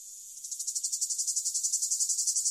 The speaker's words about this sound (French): Prière donc de ne pas confondre ces grillons des bois avec ces cigales européennes